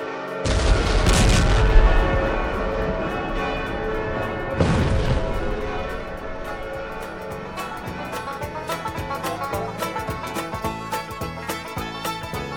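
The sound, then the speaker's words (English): Two heavy, booming dynamite blasts roll out with long rumbling tails, followed by a rapid, irregular crackle of pistol shots fired into the air by cowboys over ringing, clanging fire bells, marking the statehood proclamation in Tombstone on February 14, 1912. “the signaling of the statehood proclamation was the signal this morning for prolonged ringing of fire bells, blowing of mine and locomotive whistles, and numerous dynamite sticks being lit.”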